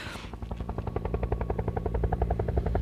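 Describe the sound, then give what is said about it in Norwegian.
A military helicopter's rotor thuds in a fast, steady rhythm over a low engine drone, loud and passing right overhead, with no voices. “Men det flopper, begynner å floppe helikopter over oss.”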